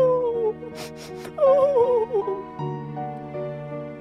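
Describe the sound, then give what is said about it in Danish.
A voice imitates crying: wavering, whimpering sobs broken by three quick sniffles, then a shaky moaning wail trailing into a lower, steady drawn-out sob, fairly loud. “Det lød som om nogen snøftede.”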